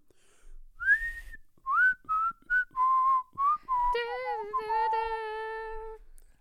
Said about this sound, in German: Weißt du, wovon ich einen richtigen Ohrwurm habe in letzter Zeit? Wovon? Ich, ich pfeif's mal vor.